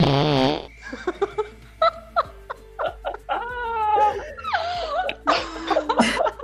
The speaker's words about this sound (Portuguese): estava fazendo a técnica, e quando eu fui levantar, eu soltei um peidão.